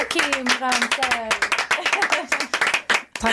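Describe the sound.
An orchestra applauds with quick, dense clapping throughout, while voices talk and exclaim over the applause.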